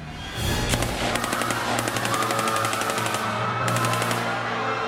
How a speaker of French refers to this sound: Ils lèvent les yeux sur la provenance de l'argent et avant même d'avoir le temps de voir quoi que ce soit, Constanzo sort sa mitraillette et tire comme un dingue dans la rue.